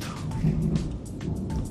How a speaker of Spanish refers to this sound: y ahí viene la tormenta, así que nos aceleramos nosotros.